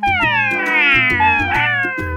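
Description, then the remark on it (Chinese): A small black cat meows in a long, drawn-out wail, its high voice sliding gently in pitch, with a steady low rhythmic clatter of knocks running underneath throughout. “它常常一边说，一边开心地呼噜呼噜叫。”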